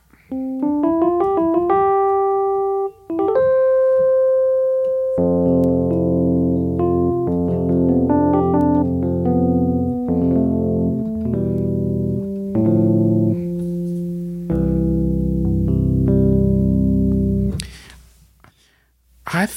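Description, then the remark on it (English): A virtual electric piano, the default instrument on a computer, is played from a MIDI keyboard connected by USB cable. It plays a quick rising run of notes, then settles into sustained, layered chords with a few melodic lines on top, clear, with no one talking. “So the default instrument, which is a electric piano, I am gonna play my MIDI keyboard”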